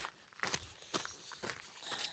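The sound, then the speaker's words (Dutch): Steady footsteps crunch along at a walking pace outdoors, each step a crisp scuff on gravel or hard ground, with faint background hiss and no talking. “Dat is het ding met lopen dan.”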